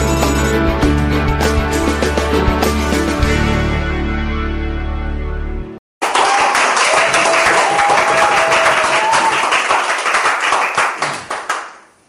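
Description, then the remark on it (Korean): A brief musical jingle cuts off, then a lecture audience breaks into loud, sustained applause, a dense patter of many hands clapping that carries on for several seconds before tapering off. “제 강의 인생에 가장 박수를 잘 쳐주시는 청중인 같아요.”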